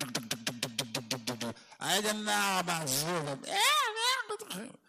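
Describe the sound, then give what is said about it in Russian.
A voice imitates a jackhammer or rotary hammer, like those heard on the streets of Rostov, with a fast, even burst of about ten rattling syllables, fairly loud, then breaks into animated, sing-song talking. “Здесь нельзя найти точку, рядом с которой не работал бы отбойный молоток или перфоратор.”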